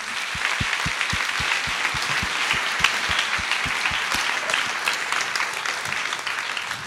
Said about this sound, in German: Und ich bin so froh, dass sie meiner Einladung gefolgt ist und ich mag sie mit einem herzlichen Applaus willkommen heißen.